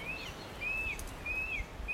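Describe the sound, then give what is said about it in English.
Birdsong at dawn in the Raetea forest: a bird repeats a clear, high whistled note three times at an even pace over a soft, hushed background, fairly quiet. “A symphony of birdsong awakens me in the Raetea forest.”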